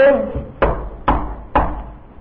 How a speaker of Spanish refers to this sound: escucha que golpean la puerta cuando escuchan que golpean la puerta, el corazón parece que se detiene. Fue el tío a abrir la puerta,